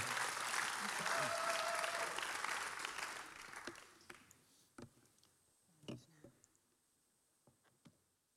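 Audience applause for a speaker at an ICF church gathering, a dense wash of clapping for about four seconds that fades out, followed by a few scattered sharp claps and faint taps.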